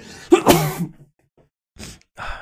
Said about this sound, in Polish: Czy raz wystarczy? Mam nadzieję, że tak. Chyba muszę też wytrzeć nosek. E, w związku z tym kichnięciem.